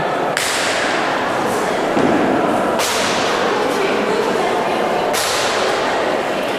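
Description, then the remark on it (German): At an exhibition opening, a performer lying behind a red-brown clay model of Taipei's train station, about 1 to 1.5 metres high, slaps his legs down onto its roof three times at a slow, steady pace, each sharp smack trailing off into a hissing wash that lingers over constant background noise. “Da steht der Bahnhof hinter dem liegend ein Darsteller seine Beine auf das Dach klatschen lässt.”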